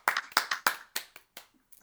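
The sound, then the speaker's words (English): A short golf clap: about nine or ten soft, crisp hand claps in a steady rhythm, starting moderately loud and tapering off to a few faint final pats, with no one talking. “And actually, you get a trophy and you get a golf clap from the Bold Nonsense podcast.”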